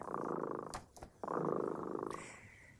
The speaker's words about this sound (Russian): Слышите, кот Дремота запел свою песенку.